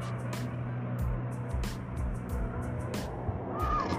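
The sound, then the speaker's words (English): A steady, low rumble of street traffic and engine noise, heard while waiting for a bus, with a droning hum underneath and occasional short rattles and bursts of street sound throughout. “Just waiting here on the bus to get home, y'all.”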